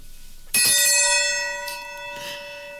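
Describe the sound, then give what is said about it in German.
A single bright metallic gong strike rings out loudly, its clear sustained tones slowly fading over a couple of seconds, with no talking; the gong is struck to announce the next category. “Gongen Sie mal.”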